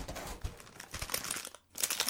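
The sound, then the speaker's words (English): Plastic wrapper crinkling as a sleeve of saltine crackers is taken out, a dense run of crackly rustles with a brief pause before the crinkling resumes. No talking. “Well, I'm gonna I'm gonna take a sleeve out as well.”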